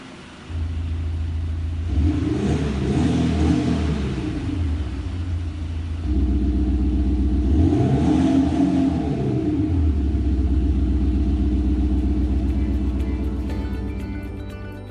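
The engine of a large Audi car rumbles, revving upward twice with rising, sweeping tones over a steady low idle, no voices present.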